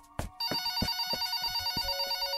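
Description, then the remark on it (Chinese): A home telephone in the living room rings late at night with a bright, continuous electronic trill, steady and fairly loud, over a soft repeating pulse. It starts after a brief knock, and nobody speaks. “然而，家里的电话在客厅，每当电话响起，妈妈就会匆匆忙忙的去接电话。”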